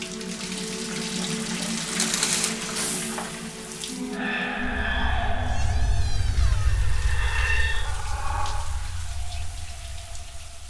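Shower water runs in a steady hiss as someone takes a shower, then surges into a heavier, deeper rush partway through, with a faint whistling squeal riding on top. No one speaks.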